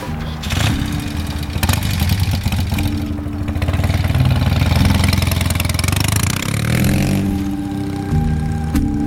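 A motorcycle with a leather seat, parked by a gate, fires up as its helmeted rider sets off. The engine idles with a low throbbing rumble, then revs and rises in pitch as it pulls away, staying loud throughout with no talking.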